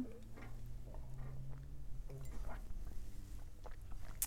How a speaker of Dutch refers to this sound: Heb jij nog te drinken? Ik heb hier nog eh, thee. een thee. Ik neem ook heel even een slokje.